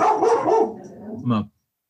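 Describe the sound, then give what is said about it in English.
Dogs bark in a quick cluster of overlapping yaps, then a brief pause before one last sharp bark cuts off abruptly. “Hold on one second, they're all barking.”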